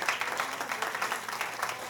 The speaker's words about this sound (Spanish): Den un aplauso fuerte a nuestro Rey.